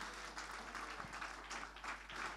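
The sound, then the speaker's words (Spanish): A crowd applauding steadily in praise of the Lord after a prayer, many hands clapping in a dense, continuous wash of sound that holds at an even level. “Fuerte ese aplauso de alabanza al Señor.”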